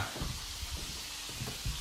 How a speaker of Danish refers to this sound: Hvad laver du så, mor? Steg kylling. Laver du kylling? Jeg laver ikke kylling, jeg steg kylling. Nå, starter du kylling? Ja, Fried chicken.